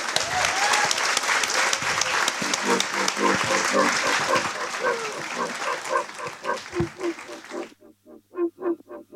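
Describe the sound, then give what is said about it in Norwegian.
An audience applauds loudly and steadily for about seven seconds for a guest who has just performed a song, with scattered cheers mixed in, then the clapping cuts off abruptly and a voice follows. “Da må vi gi en eh, stor applaus”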